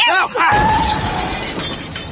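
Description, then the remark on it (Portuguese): A car crashes while being parked in a space too small for it, with a loud impact, followed by glass shattering into a bright, crackling spray of fragments that rattle and tinkle for about two seconds. “teimosa, eu não falei que, que o carro não cabia nessa vaga?”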